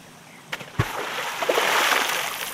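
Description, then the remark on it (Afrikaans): A heavy splash as someone jumps into a river, with a quick thud of impact followed by churning, sloshing water that stays loud to the end. “sê sy en sy spring in die rivier.”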